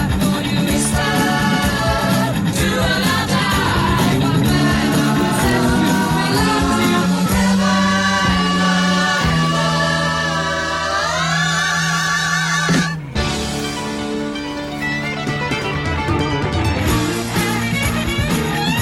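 A rock band song plays loudly and continuously, with full guitars, bass and drums, a rising sweep of notes, and a brief break before the band comes back in.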